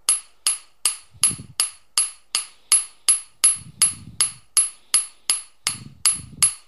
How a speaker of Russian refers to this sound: Когда стучишь молотками, непонятно, соприкасаются они или нет.